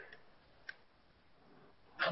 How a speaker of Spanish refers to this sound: Mierda, me asustó. Maldito perro de mi primo.